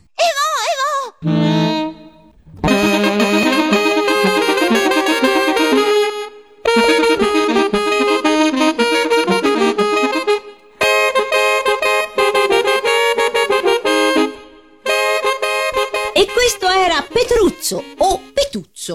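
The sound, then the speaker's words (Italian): Saxophones play a recorded set of variations on the theme of 'Ma che bella rificolona', loud, in long sustained passages broken by short pauses, ending with a flurry of shorter, detached notes. “E Luca, ora spiegaci a cosa si ispirano queste variazioni per sassofoni che abbiamo appena ascoltato.”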